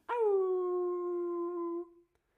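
A Mexican wolf lets out a single long, steady howl lasting about two seconds, loud, holding one pitch before trailing off, with no other sounds around it.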